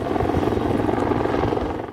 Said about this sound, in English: and five helicopters working aerial firefighting, but concerns of boats getting in the way while helicopter buckets tried to collect water.